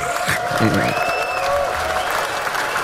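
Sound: audience applauding and cheering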